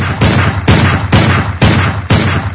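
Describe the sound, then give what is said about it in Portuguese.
A steady series of six loud shots from a silver .22 revolver, each a sharp crack with a ringing tail, spaced about half a second apart, with no voices. “Seis tiros com meu revólver 22 prateado.”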